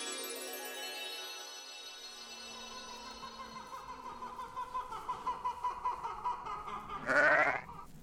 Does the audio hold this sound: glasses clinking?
no